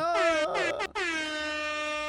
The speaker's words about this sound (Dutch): Eh, hoorde jij die toeter ook? Ja, ja, zeker. Uh, ja, idioot buiten aan de toeteren.